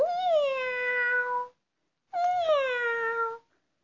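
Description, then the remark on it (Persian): Two drawn-out cat meows, each about a second and a half long, loud, separated by a short pause, with a bright, whiny tone that slides gently downward. “گربه گفت”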